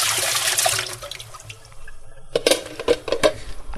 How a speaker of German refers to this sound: laufen lassen, weil das geht ja direkt weg, sondern in den Topf die Nudeln und dann kalt Wasser und dann nochmal auswechseln. Denn das ist sinnvoller als jetzt das Wasser drüber laufen zu lassen. Bis das kalt ist, das dauert zu lange.